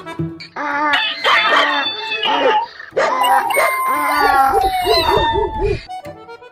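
A loud, chaotic chorus of animal cries, with a donkey braying, a dog barking, a cat meowing and a rooster crowing, all overlapping for several seconds.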